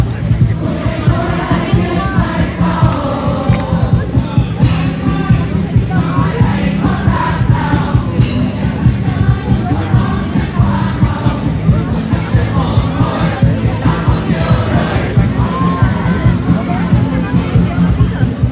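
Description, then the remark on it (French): A large crowd sings along in canon to local pop hits played by young pop bands, many voices blending into a loud, steady wall of sound that carries on without a break for the whole stretch. “De jeunes groupes de pop balancent des tubes locaux repris par la foule en canon.”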